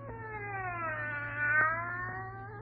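A cat lets out one long, drawn-out yowl that wavers in pitch and swells toward the end, over a steady low hum with no talking.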